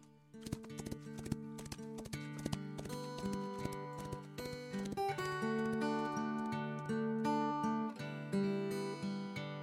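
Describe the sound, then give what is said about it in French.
Quick hoof clops of a galloping horse over a bright melodic musical backing, the hoofbeats most prominent at the start before the music swells and carries on. “Quant au chasseur, devenu un beau jeune homme, il épousa la princesse Vasilissa dans sa robe multicolore et ils partirent au galop.”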